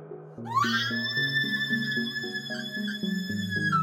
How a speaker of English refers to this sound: The computer screamed. The high curator backed away, long fingers suddenly over her ears.